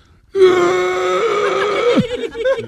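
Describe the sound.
A voice imitates an old woman's scream: one thin, wavering cry held for about a second and a half, then breaking off abruptly into a few rough, shaky breaths.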